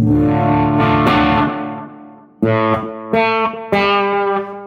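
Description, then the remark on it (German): An electric guitar with mild overdrive and reverb, played with only a Kili pedal and an EP booster on and the OD11 switched off, plays a sustained ringing chord that slowly fades, then several sharper strummed chords follow, each ringing out with a warm, slightly gritty tone. “Also jetzt wäre nur der Kili gerade an und der EP-Booster. Und die Reverb und so weiter, dann klingt er so.”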